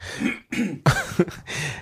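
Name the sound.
throat clearing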